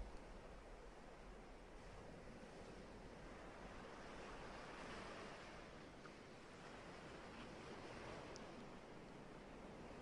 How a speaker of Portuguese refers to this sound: respiração e as ondas do mar.